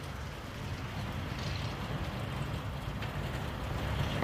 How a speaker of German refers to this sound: Aber es regnet hier extrem gerade an die Scheiben hin. Wow.